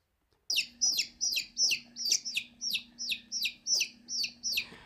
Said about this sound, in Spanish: Pero en este caso era un pollito. Sí, yo escucho un pollito.